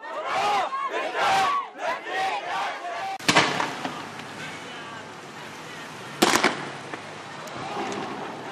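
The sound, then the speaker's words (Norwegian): Hundreds of people in a funeral procession behind a coffin for a 17-year-old shout slogans against the authorities in loud unison, in a small island state in the Persian Gulf, then the sound dissolves into a noisy outdoor din broken by two sharp, explosive bangs. “Hundrevis av frammøtte roper slagord.”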